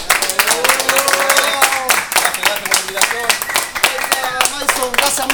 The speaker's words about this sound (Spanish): De verdad, yo primero quiero empezar esto con un aplauso por ustedes mismos hacia ustedes mismos.